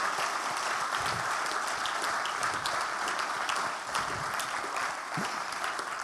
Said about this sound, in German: Also lass uns denen nochmal einen riesigen Applaus geben, oder? Yes.